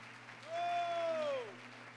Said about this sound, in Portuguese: Quando você pode aplaudir o Senhor se você quer.